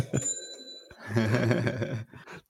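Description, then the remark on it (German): A bright bell ding rings out and hangs briefly, then gives way to a jangling, rattling burst like coins in a drawer, a short cash-register ka-ching sound effect played from a phone app's big green Kaching button, with no one speaking. “Ich habe eine, ah, eine App gefunden, wo man sich jedes Mal, wenn man, das ist ein riesengrüner Button, wo Kaching steht”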